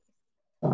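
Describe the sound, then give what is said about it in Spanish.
A single loud sneeze bursts out suddenly after near silence, harsh and breathy, and ends abruptly. “Salud.”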